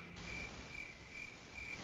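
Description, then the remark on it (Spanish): A cricket chirps in steady, evenly spaced pulses against a soft background hiss, fairly faint, with no voices present. “tómate tu tiempo, eso ha solo un grillo del fondo, tómate tu tiempo.”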